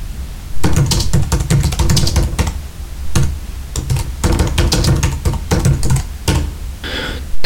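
Rapid, uneven clatter of keys being typed on a computer keyboard, fairly loud, in bursts with brief pauses, no voices; a transmitter is lying next to the keyboard.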